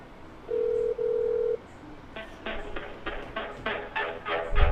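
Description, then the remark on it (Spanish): A telephone ringing tone from a phone call being placed sounds once, a steady low-pitched buzz lasting about a second with a brief break in the middle, followed by a quick run of bright, rhythmic pulses. No one speaks. “Vamos a ver qué sucede si llamamos.”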